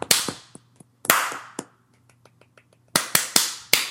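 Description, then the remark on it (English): A sparse golf clap given for Spitfire Records: scattered, unhurried handclaps in an uneven rhythm, a few faint ones trailing off midway, then four sharp, evenly spaced claps to finish. No one speaks. “Is can can we all give a golf clap for Spitfire?”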